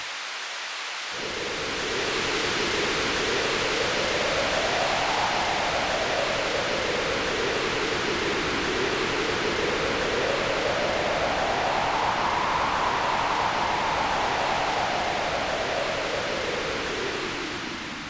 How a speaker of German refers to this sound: So kann man sich zum Beispiel seine eigene Unwetterlandschaft zusammenbauen, die, wenn man die einzelnen Komponenten betrachtet, komplett aus weißem Rauschen besteht. Also wir nehmen zum Beispiel Regen. Dann kommt der Wind dazu.